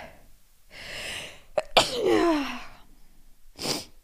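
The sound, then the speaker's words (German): A single forceful sneeze, preceded by a sharp breathy inhale and followed by a brief exhale, with quiet breathing around it and no talking. “Oh, es kommt noch ein Nieser, glaube ich.”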